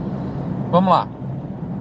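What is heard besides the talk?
car interior road noise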